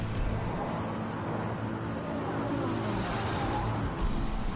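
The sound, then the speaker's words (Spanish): Several police cars drive along a coastal road at dawn during an operation, giving a steady, continuous rumble of engines and tyres that stays fairly loud and even throughout, with no one speaking. “Varios coches avanzan por una carretera costera.”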